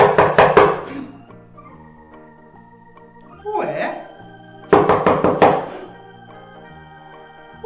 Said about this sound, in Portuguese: João ouviu três batidas na porta.